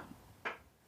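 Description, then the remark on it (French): A single brief creak from a chair under a person's weight, a short dry knock-like squeak that stands out faintly against a quiet background, with no talking. “Ah, c'est ma chaise qui grince, merde.”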